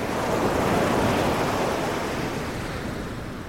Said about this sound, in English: the sea is exactly where I last saw it well down the beach, nowhere near my tent. The tide looks a bit closer, and the waves are certainly bigger than they were last night. But there are no freak waves.